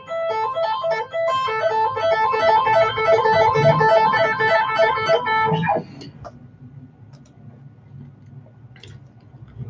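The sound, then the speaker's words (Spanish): Fast electric guitar notes, played with a tapping technique like pull-offs through heavy gain and distortion, ripple in a repeating tapped pattern, bright and sustained, for about six seconds before cutting off to quiet background noise. “cuando hacemos tapping es como la técnica de pull-off, del hígado descendente en la guitarra eléctrica”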